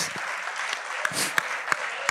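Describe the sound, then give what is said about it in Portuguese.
A crowd applauds a birthday honoree as he enters, with steady, dense clapping, a few sharper individual claps standing out at a loose, irregular rhythm through the short burst. “Uma salva de palmas para o aniversariante.”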